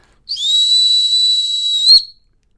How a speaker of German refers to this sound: Wichtig ist, dass du den Sitzpfiff immer gleich machst und nicht auf den Hund angepasst. Das heißt, wenn dein Hund gut sitzt, dann machst du nur und wenn dein Hund aber gerade am, am Rumhanden ist und keinen Bock hat auf Sitzen, dann machst du